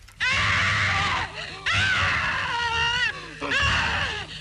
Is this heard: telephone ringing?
no